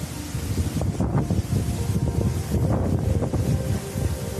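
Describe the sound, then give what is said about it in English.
Loud, constant roar of powerful storm wind buffeting the microphone aboard the Carnival Sunshine cruise ship, returning from the Bahamas to Charleston, South Carolina, in May, with heavy waves surging and crashing in uneven bursts; no one speaks. “In May, the Carnival Sunshine was returning to Charleston, South Carolina from the Bahamas when it encountered a powerful storm, making conditions on board terrifying and dangerous for the passengers and crew.”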